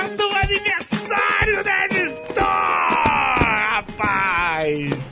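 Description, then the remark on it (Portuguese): A man lets out a series of strained, held-back yells, tense, stifled bursts of voice that rise and waver in pitch, with brief gaps between them. “eu tô gritando baixo, com, me contendo.”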